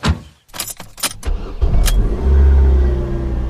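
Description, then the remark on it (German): A car starts up after a few clicks and rattles, the engine catching and then rising into a steady, loud rumble as the vehicle revs and pulls away. No one speaks. “Beide sind bereits auf der Autobahn Richtung Küste zum Bauernhof von Jennys Schwester.”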